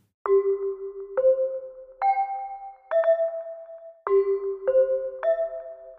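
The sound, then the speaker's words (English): Seven clear notes struck on hand chimes, the National Broadcasting Company's end-of-program chime sequence played live by the announcer holding the chimes next to the microphone, each ringing on briefly: four evenly spaced tones, a short pause, then three more in quicker succession, bright with no voices. “the idea was that at the end of each program, the announcer who's at the microphone and is saying, This is the National Broadcasting Company, would strike a seven note chime sequence on a, a uh, set of hand chimes that he held next to the microphone.”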